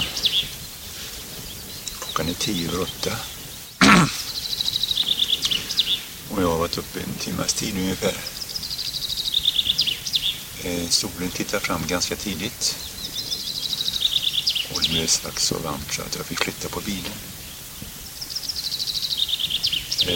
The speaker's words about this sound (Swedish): Ja, det är lite fåglar igång.